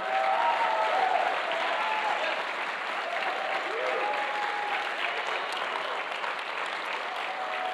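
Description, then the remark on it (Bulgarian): A crowd claps steadily and loudly for several seconds as an offering of praise to God, a dense, unbroken wash of applause with faint cheers or voices threaded through it. “О, ако вярваш в това, защо не му дадеш едно истинско дарение на ръкопляскане?”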